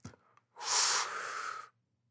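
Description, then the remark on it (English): A single long, deep breath drawn in, airy and hissing, lasting about a second before fading out, preceded by a faint brief rustle; no one speaks. The breath is taken in to be held for three seconds. “Take a deep breath in and hold it for three seconds.”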